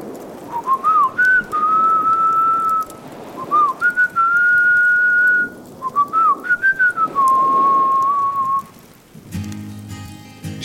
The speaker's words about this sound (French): Je me mets à siffloter